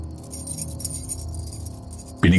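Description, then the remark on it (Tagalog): A bunch of keys jingles and rattles with a bright metallic shimmer for a couple of seconds as a key is handed over, before a louder low thump cuts in at the end. “Matalim ang tingin niya sa akin nang iabot ang susi.”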